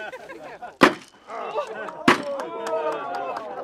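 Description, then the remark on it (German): Two sharp, loud knocks struck ceremonially on a wooden foundation beam about a second apart, marking the building of a wooden house designed by Adolf Loos beside the Czech Technical Museum in Prague; each a sudden percussive crack, over a continuous background of overlapping voices murmuring. “Wenn Sie erlauben, werden wir feierlich auf den Grundbalken klopfen.”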